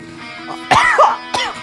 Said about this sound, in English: Guys, why why does the mucus have to fall right into that little spot that trips up? I gotta cough again.